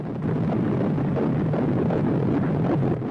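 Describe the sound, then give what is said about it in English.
A fetal heartbeat of an unborn baby just 28 days after conception, picked up by a Doppler monitor: a steady, loud, muffled whooshing roar with a fast pulsing beat, heard on its own, with no voices. “You are listening to the sound of the heartbeat of an unborn baby just 28 days after conception.”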